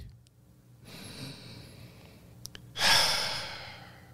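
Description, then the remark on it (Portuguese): A deep, audible breath drawn in slowly, then a louder, breathy exhale rushing out, with no talking. “Quando eu respirei.”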